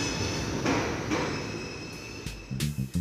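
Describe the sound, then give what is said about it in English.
A train rumbles steadily at a quiet, nearly empty New York subway platform at 7 o'clock on a Tuesday evening, a faint high whine running above it while several metallic clanks and thuds ring out, with no voices. “Just the sound of the trains.”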